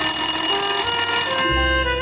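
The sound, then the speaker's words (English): A phone rings in Hollywood with a bright, electronic ringtone, loud, its sustained tones shifting to a lower note near the end. No one speaks. “It's my phone. It's ringing.”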